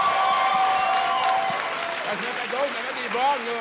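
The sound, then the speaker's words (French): An audience applauds, a dense, steady wash of clapping that carries through the whole stretch, with a high whistle early on and excited cheering voices rising over it toward the end. “Il mérite une clap. On peut l'applaudir, mais.”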